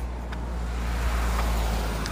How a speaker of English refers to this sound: There's another car, someone else coming to Pilates.